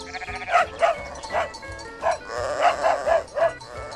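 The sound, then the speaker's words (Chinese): A sheepdog, A-Bang, barks in a quick series of about eight short, mid-pitched yaps at an uneven rhythm as it herds the sheep out to graze on the Walker farm in the early morning, mingled with sheep bleating, with no one talking. “牧羊犬阿邦。忙着赶绵羊去吃草”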